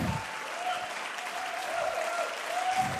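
Sustained applause from a church audience welcoming a guest preacher, a dense, steady wash of many hands clapping at an even level for the full few seconds, with no voices standing out.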